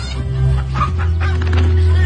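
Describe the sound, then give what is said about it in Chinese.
Two roosters fighting in a cockfight, one a small yellow rooster, clucking and squawking in short, uneven bursts over a steady low hum, with no one speaking. “那只黄公鸡那么小，比赛一点都不公平。”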